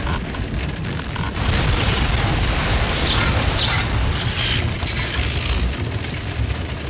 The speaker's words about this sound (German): Blitzeinschlag, Stromausfall.